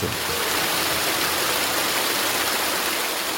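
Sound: rushing waterfall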